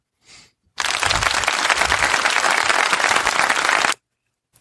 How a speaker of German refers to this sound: Dann spiel dir bitte selber Applaus ein, weil das ist selten genug, dass du so eine Sache einleitest.